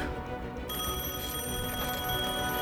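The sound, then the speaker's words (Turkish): A telephone bell rings steadily, a continuous bright metallic trill that fills the whole moment at a fairly loud, even level, with no one speaking over it. “Telefon çalıyor.”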